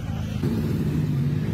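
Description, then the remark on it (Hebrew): A steady, loud rumble of a motorcycle convoy riding past, the low throaty drone swelling slightly partway through as more bikes roll by; a memorial ride for David Yehuda Yitzhak, led by his motorcycle, with hundreds of riders from all over the country. “יצאה הצדעה על האופנוע של דוד יהודה יצחק, זה האופנוע שלו, זה תחילת השיירה, וזה כל מי שנמצא פה ביחד.”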